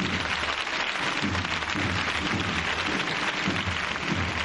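A street crowd on Calle Pureza applauding, a dense, steady wash of many hands clapping at once, sustained and fairly loud for several seconds without pause.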